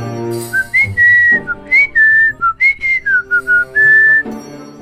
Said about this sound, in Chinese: 这时，外面传来一阵吹口哨的声音。